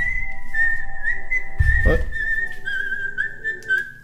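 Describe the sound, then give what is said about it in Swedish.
A mobile phone ringtone for an incoming call from mum plays a high, whistle-like melody that steps between a few pitches for about four seconds, with a brief low thump partway through. “Nu ringde mamma. Sådär ja. Skön ringsignal.”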